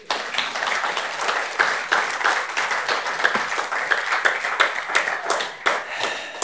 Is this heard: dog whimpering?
no